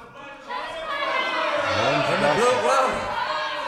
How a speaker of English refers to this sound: ask the audience for a Western request. There's some great Western tune of ours or one of the classics you might want to hear. Yell it on out, and we'll see if we can't do it.